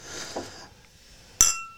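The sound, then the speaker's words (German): A single bright clink of glasses of schnapps rings out and lingers briefly, following a soft, hissy rustle; no one speaks. “Gib mir mal mehr Schnaps.”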